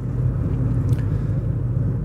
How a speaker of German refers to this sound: Da musste ich jetzt die ganze Zeit hinter dem LKW herfahren, bis ich runterfahren konnte von der Autobahn. Jetzt gerade.